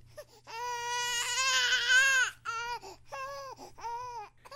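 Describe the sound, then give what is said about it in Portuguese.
A child cries in a long, wailing sob, then breaks into several shorter, hiccuping cries, fairly loud, with a faint steady hum underneath and no talking. “Ao chegar em casa, resolveu ver as fotos que havia feito no cemitério e novamente começou a ouvir um choro de criança.”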